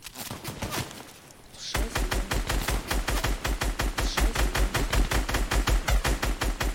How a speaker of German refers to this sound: Ich bin so gut. Schuss.